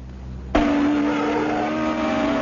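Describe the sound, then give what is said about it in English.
After a brief low rumble, a race car engine at Lime Rock Auto Track in Connecticut suddenly roars loud, holding a steady, droning whine for the rest of the moment. No one speaks. “We're at Lime Rock Auto Track in Connecticut.”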